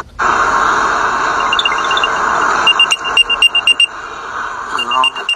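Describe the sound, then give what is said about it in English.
An Apple AirTag locator chime plays from inside a car, triggered with 'play sound' to find where the tag was hidden: a steady electronic tone with bright chirping trills, breaking into a quick run of pulsing beeps toward the end. “Well, that's the sound you would hear if you're tracking an Apple AirTag because you lost your keys or you lost your bag.”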